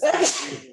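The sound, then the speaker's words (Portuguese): A single loud sneeze, a sharp breathy burst that trails off quickly, with a hint of laughter around it. “Opa, saúde”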